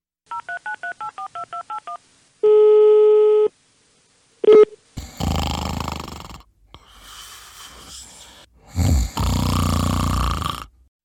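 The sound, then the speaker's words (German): A quick run of about ten telephone keypad dialing beeps as someone places a call to Brussels, then a steady line tone, a short blip, and rough, crackly bursts of noise like a garbled connection. “Aber wir haben natürlich den direkten Draht und ich rufe mal schnell durch in Brüssel, vielleicht gibt es ja aktuelle Informationen.”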